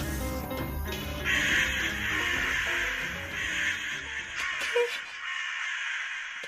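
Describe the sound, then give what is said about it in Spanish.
Several crows caw harshly and overlapping, a raucous, squabbling chorus of rough calls as they fight over carrion in the street, with no talking, tapering off near the end. “Tranquilícese, son solo unos cuervos peleándose por unas carroñas en la calle.”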